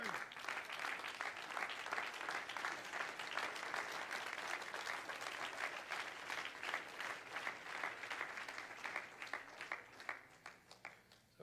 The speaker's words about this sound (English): Everybody stand here this morning and clap your hands to the Lord.